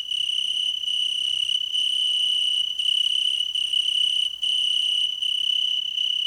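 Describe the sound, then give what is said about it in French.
A high-pitched, steady cricket trill rings out loud in a valley, a continuous shrill chirring made by crickets holding two transparent wings up and vibrating them back and forth, broken only by brief, regular pauses. No voices. “Il reste deux ailes transparentes en l'air et les font vibrer.”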